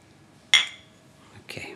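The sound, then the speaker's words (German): A bright glass clink rings out sharply and decays over a moment as glasses meet in a toast, followed by a softer second clink of glasses. “Okay, dann Prost erstmal, lehnen wir uns zurück.”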